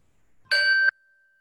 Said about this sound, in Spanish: Los invito a que se sienten de manera cómoda, lleven la atención a la respiración y vamos a escuchar el sonido de la campana. Cuando la campana suene, cerramos suavemente los ojos.